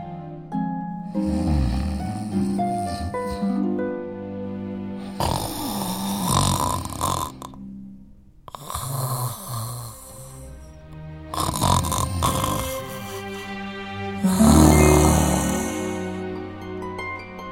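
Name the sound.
giant snoring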